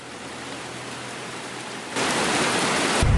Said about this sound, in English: The rain just stopped here a little while ago at the Vietnam Veterans Memorial. You can hear it running down the sloped walkway.